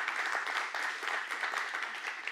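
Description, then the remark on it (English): A crowd applauds steadily, a dense wash of many hands clapping at once that stays loud and even from start to finish, with no voices standing out. “usually I'm like, when you clap, I'm like, stop.”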